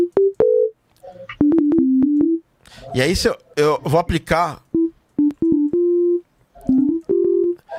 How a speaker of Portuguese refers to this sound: E aí, ó, primeira onda que, que é mais comum dos basic shapes é essa aqui, ó. Uhum. Que é a, é a, onda senoidal.